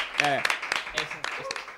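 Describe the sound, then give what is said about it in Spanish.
A short burst of clapping from a small group on a Spanish TV show, with irregular sharp claps and excited voices cheering and whooping over the top throughout, applauding an answer the host accepts as correct. “Venga, se la damos por correcta ahí. Un aplauso.”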